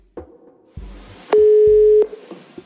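A single loud, steady telephone ringing tone of an outgoing call, lasting under a second, with faint low rumbling and handling noise before and after it.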